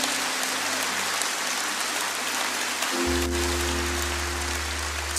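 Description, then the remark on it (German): A church audience gives applause to the Lord during a morning service, clapping steadily, a dense, even wash of many hands that holds for the whole stretch, with a low sustained hum underneath that deepens about halfway through. “Komm, wir geben dem Herrn mal einen richtigen Applaus heute Morgen.”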